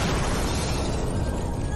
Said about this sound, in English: I've got no interest in fireworks anymore. These fruity little. I like the sound of a loud bomb. I'll tell you that.